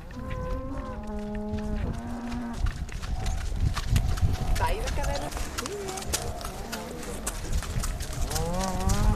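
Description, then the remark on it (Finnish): Young cows moo repeatedly as they run out to pasture, their long lowing calls rising and falling over a busy outdoor bustle of movement and hoofbeats, with people talking in the background. “aika innoissaan ne oli, kun ne tuonne laitumelle pääsivät juoksumaan.”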